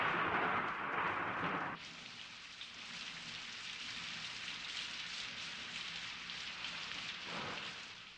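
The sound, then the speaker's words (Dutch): Steady rain pours down, a dense hiss of drops spattering on hard surfaces, heavier and brighter at first before settling into a constant wash. No voices. “En dan is er de regen.”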